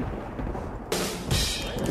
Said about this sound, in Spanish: Trueno.